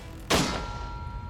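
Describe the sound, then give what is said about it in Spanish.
A single sharp gunshot cracks out as a bullet is fired at a test wall of two layers of drywall with about 9 cm of fiberglass insulation between, followed by the bright ringing clang of the bullet striking metal, its steady tone lingering and fading slowly. No one speaks. “Escuché el sonido del metal.”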